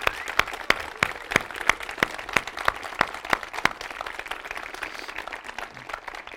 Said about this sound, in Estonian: et äh, ma arvan, et teeme ka investe-, investeerimisfestivali korraldajatele suure aplausi